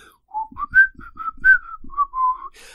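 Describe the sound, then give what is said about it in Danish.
A boy whistles a calm, unhurried tune quietly while walking toward the front door, about a dozen smooth, steady notes at moderate volume, with faint soft thuds underneath and no talking. “Og så gik han hen imod hoveddøren, mens han fløjtede stille og roligt”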